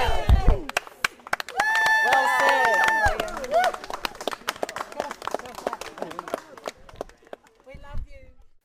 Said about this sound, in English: The crowd are just drinking it up, calling out to him how they love him